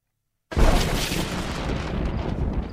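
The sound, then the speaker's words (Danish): In a film scene, after a moment of silence, lightning strikes over an open field with a sudden, loud explosive crack that rolls into a dense, sustained roar and rumble, overwhelming, with no voices. “det er jo meget specielt lynvær, hvor det bare slår ned i åben marker som små eksplosioner”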